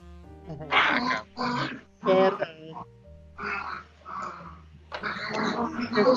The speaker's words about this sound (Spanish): Güey, ¿qué perros están peleando, güey? Aquí los escucho, güey. Y no mames, están peleando unos perros. Hay putazos, güey. ¿Tu casa, güey? así es todas las pinches noches en mi casa, güey.